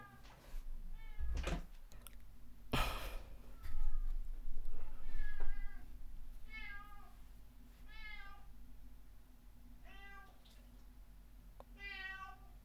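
A male cat meows repeatedly, with drawn-out, wavering calls spaced every second or two, clear. A couple of sharp knocks or thumps come early, and no one speaks.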